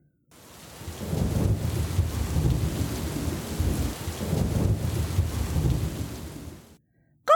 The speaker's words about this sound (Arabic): قفز كركوش من مكانه واختبأ تحت السرير وبعد قليل توقف صوت الرعد خرج كركوش من تحت السرير أزال ليث يديه عن أذنيه وقال وهو يرتجف إنه صوت الرعد